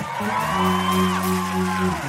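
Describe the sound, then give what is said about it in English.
An audience member shouts and whoops enthusiastically, fairly loud, over steady sustained organ-like chords that shift pitch in steps, with a faint crowd in the background. “If you're looking at somebody who's shouting right now and you don't understand their enthusiasm, the reason they're shouting is they've got some stuff in the ground.”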